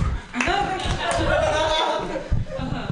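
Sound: audience clapping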